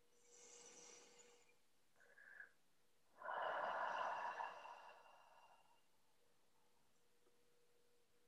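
A single deep, drawn-out inhale taken as a deep breath in, loud at the microphone, rushing in for about two seconds and then tapering off, with a short softer breath sound just before it.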